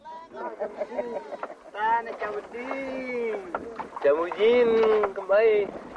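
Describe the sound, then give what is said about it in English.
Several fishermen on a boat in the Makassar Strait call out to flying fish with calls known as elongi, in long, wavering, sing-song cries that rise and fall and overlap one another, loud, with faint wind and water noise beneath. “These sounds that you're hearing right now are the other guys on the boat calling to the flying fish using some of these calls called elongi, which simply means to call.”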